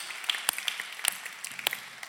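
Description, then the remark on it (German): A church audience in Nuremberg applauds during a Sunday service, a dense, steady patter of many hands clapping with a few sharper claps standing out, moderately soft, with no voices. “Und vielleicht können wir einfach mal uns gegenseitig auch hier aus Nürnberg allen nochmal einen riesen Applaus geben.”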